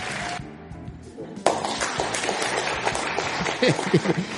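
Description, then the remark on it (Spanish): An audience breaks into applause, a brief quieter stretch giving way to a dense, loud wash of clapping that keeps going to the end, with voices mixed in underneath. “Los aplausos deben ser equitativos.”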